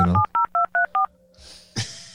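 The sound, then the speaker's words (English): A quick run of about five or six telephone keypad tones, each a short dual-pitched beep in steady rhythm, followed by faint line hiss and a brief click near the end. “We could add we could add some beep sounds at the uh, in, in post.”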